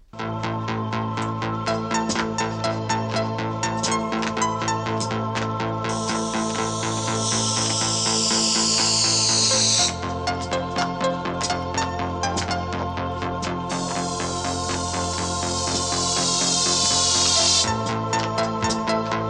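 Steady ticking clicks run through an electronic synth-pop track, with droning synth tones, a pulsing bass and bright sweeping synth swells, all loud and continuous with no voices.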